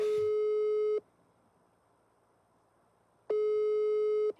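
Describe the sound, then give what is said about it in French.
A telephone line tone on a music album track, before a phone conversation, sounds as two long, steady electronic beeps, each about a second, separated by a silent gap of a couple of seconds. Clear, with no voices. “Et puis sur ces 16 morceaux de l'album, il y a 45 secondes d'une conversation au téléphone.”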